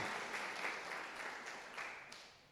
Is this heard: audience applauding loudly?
yes